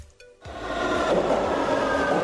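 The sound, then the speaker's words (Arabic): A brief quiet moment gives way to a sudden, sustained rumble of a moving metro train, loud, with rattling low-end and a bright metallic hiss running steadily to the end. “وهلا مثلا رح ننطلق بالمترو”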